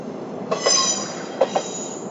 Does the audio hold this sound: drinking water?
no